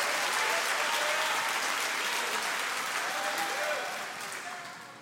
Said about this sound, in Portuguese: Começa a dar uma salva de palmas ao Senhor. Começa a dar um glória a Deus em nome de Jesus.